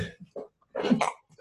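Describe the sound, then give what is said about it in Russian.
A muffled, stifled sneeze bursts out, set between a few short breathy sounds and quiet intakes of breath. “Кстати, я рекомендую чихать громко.”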